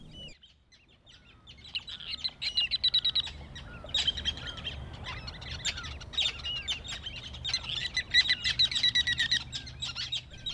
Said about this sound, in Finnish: Tämä taustalla oleva ääni ei kuitenkaan ole kaupunkilintu, vaan karikukko, joka viihtyy ulkosaaristossa ja jota Jörän Bergman on tutkinut pitkään.